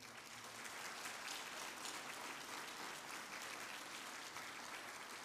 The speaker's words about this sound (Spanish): Dele palmas al Señor, hermano.